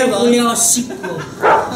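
A dog barking sound effect, a few loud barks with a whining, yelping tone, followed by one more sharp bark near the end.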